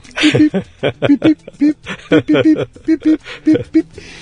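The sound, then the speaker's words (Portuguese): A voice mimics Morse code with a rapid string of short, clipped beep-like syllables in an irregular pattern of dots and dashes, fairly loud. “O código Morse, ele conversa assim, ó. Pip,”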